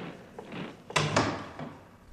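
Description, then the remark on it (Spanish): A door being pulled shut, two quick wooden thuds as it meets the frame and latches, moderately loud over a quiet background. “Cierra esa puerta, Gabriel.”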